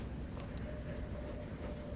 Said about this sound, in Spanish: el rumor de la autopista, voces a lo lejos.